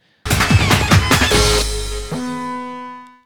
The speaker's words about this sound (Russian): А вот эту вот э, гитарюху странную, слышите?